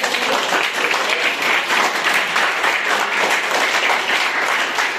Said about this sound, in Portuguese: Jesus merece uma salva de palmas.